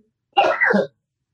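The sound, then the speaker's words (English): A short nose blow, a breathy two-part honking burst of air lasting about half a second, heard alone with silence before and after. “excuse me as i blow my nose”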